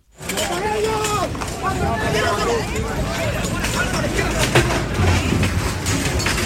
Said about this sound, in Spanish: Este es el sonido de esa pelea que se produjo en la Alameda.